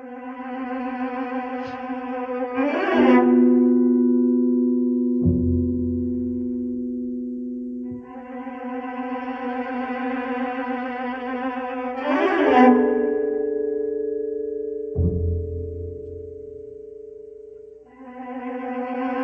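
Eerie orchestral horror score music: sustained, droning tones swell into bright stabs, then deep low thuds, the pattern repeating twice with no one talking.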